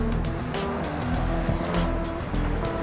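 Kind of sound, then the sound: vehicle, car driving away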